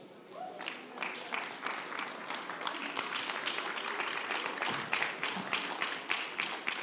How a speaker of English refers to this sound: Hallelujah. Yeah, let's clap to the Lord, all of us. Thank you, Lord.